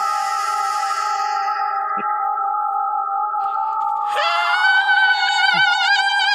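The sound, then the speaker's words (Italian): A person belts out one long, piercing, very high metal-style scream, sung in tune and held steady, then pushed higher with a wild, wavering vibrato for the last couple of seconds. No talking. “Con gran sorpresa di tutti, però tira fuori una voce acutissima, quasi da cantante metal, e caccia intonato caccia quest'urlo assurdo vicino alle orecchie del vampiro”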